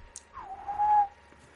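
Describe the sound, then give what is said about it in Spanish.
A person whistles a single sustained note that slides downward and then holds steady for a moment before fading, heard alone with no talking. “habla así, silbando.”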